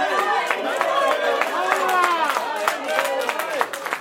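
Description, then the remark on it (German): At a demonstration, scattered, uneven clapping from a few people, applauding as police escort a man out, rises out of a loud, busy crowd of overlapping voices, with sharp claps popping irregularly over constant chatter and calls. “Einige klatschen, dass er rausgeschmissen wird.”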